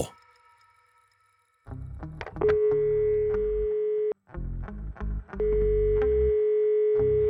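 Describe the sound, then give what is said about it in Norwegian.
A steady telephone dial tone hums in two long stretches, broken by clicks and rumbling handling noise as a call is placed; no one speaks. “Renny Nordlund som ringer. Jeg prøver igjen.”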